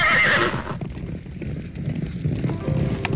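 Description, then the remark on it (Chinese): An old horse gives a loud, high whinny at the start, then its hooves clip-clop in a steady, rhythmic run that continues to the end as it is ridden charging straight into a flock of sheep. “他骑着他的老马直直往羊群里冲，结果把这些羊群吓得四处乱跑。”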